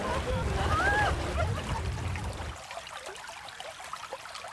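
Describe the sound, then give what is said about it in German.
A babbling brook gurgles and splashes steadily at a meeting point in the village of Champs-Secré, 100 kilometres inland in the Normandie-Maine nature park, with faint indistinct voices over the first half before the water continues on its own, slightly softer. “Er plätschert ungefährlich dahin, der Bach am Treffpunkt in Champs-Secré, 100 Kilometer landeinwärts.”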